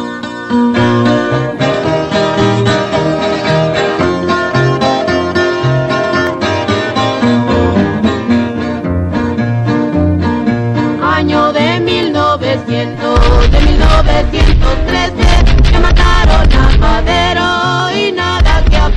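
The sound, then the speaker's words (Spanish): A Mexican corrido sung by two sisters over steady guitar accompaniment, loud and continuous, with the band growing fuller and heavier in the low end partway through. “esta vez vamos a escuchar el cuartelazo felicista de Samuel Lozano”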